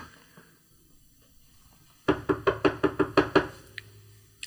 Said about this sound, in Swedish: Och eh, vi står där utanför och jag knackar på dörren.